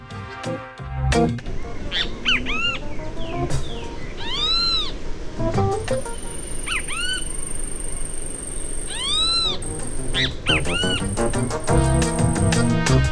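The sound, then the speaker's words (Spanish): A recording of birds of Uruguay: loud, nasal bird calls ring out in several bursts, each a rising-and-falling squawk, over a busy background of other birdsong and a thin, steady high whistle. “algunas de las grabaciones que incluso se pueden, lo pueden buscar en Spotify, eh, lo buscan como Aves del Uruguay”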